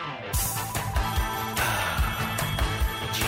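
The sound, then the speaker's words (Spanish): A short, bright radio station jingle plays on its own: full-band music with a punchy beat and layered melodic parts, loud, with no talking over it. “¿Cómo dice mi querido cómo suena mi jingle esta mañana”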